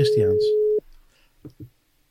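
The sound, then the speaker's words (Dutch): A telephone busy signal sounds as one steady, fairly loud tone lasting under a second, with voices talking over it, followed by a couple of brief murmurs before silence. “Ja, die gaat niet worden. Ik hoor het al.”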